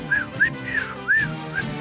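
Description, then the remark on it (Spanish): Several short, breathy whistled notes from a person attempting to whistle, sliding up and down in pitch, spaced unevenly over a couple of seconds, moderately loud with faint background murmur underneath. “me refiero a cuando eh, eh, le sacaba un pedacito a la naranja y podías hacer una ah. flauta, podías hacer música.”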